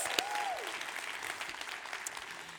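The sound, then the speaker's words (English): A crowd applauds for Jesus, celebrating 184 people who met Jesus in the building, a steady, dense wash of clapping with a brief rising-then-falling whistle near the start. The sound stays fairly even and moderately loud throughout, with no talking. “Let's give it up for Jesus.”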